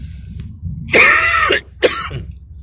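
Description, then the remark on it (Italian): A harsh cough lasting about half a second, followed by a shorter rasping throat clearing, with quiet background noise and no speech. “minchia, che tosse di merda.”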